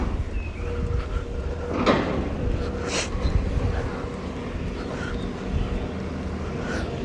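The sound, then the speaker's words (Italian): A truck works at a roadworks site: a steady low engine rumble runs throughout, with a couple of sharp metallic clanks and scrapes breaking through. “a parte qualche lavoro in corso che se ne eh, sì, infatti c'è un camion che sta facendo qualcosa”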